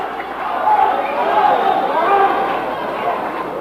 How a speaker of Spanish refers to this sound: Los integrantes del Frente Democrático del Frente Independiente Moralizador, de Izquierda Socialista y de Izquierda Unida, están sentados en su hemiciclo. Y hay una gran bulla en el local del hemiciclo de la Cámara de Diputados.